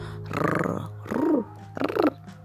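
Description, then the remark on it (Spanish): A voice imitates a cat's purr with three short, rough, rumbling bursts, moderately loud, with brief pauses between them and no other speech. “Tomó un lápiz y dijo y dibujó un gato que estaba contento, casi podía oír su ronroneo, como le hacen los gatos”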